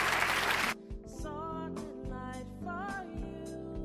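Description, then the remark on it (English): An audience claps their hands at a preacher's request in a dense, brief burst of applause that cuts off after a moment, giving way to soft sustained organ-like music. “If you agree with that, can you clap your hands?”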